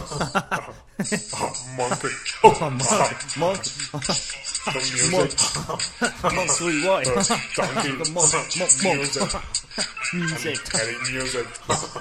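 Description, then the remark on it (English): A mobile phone rings as it is called from another phone, its ringtone playing a theme melody continuously for several seconds, fairly loud, its busy, voice-like tones rising and falling without pause. “Titelmelodie für den Podcast als Klingelton”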